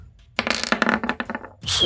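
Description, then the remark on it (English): Dice clatter and tumble across a hard surface in a quick burst of sharp clicks lasting about a second, rolled to hit in a tabletop game and coming up twelve, a miss; followed by a short breathy rustle; no one speaks. “It was almost a 19 on the dice, but 12 against KAC is a miss.”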